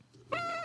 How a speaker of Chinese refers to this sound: 大家听得到我的猫在叫，对不对？